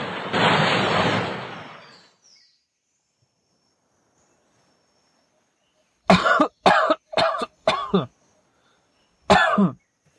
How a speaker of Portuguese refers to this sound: Milt acordou tossindo na água do mar.